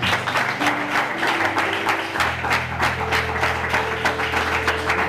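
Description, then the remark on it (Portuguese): An audience at an evening worship service applauds the disciplers who open their homes for discipleship, steadily and loudly for about five seconds, a dense wash of many hands clapping, while low sustained keyboard chords hold underneath and shift once partway through. “Vamos aplaudir essas pessoas.”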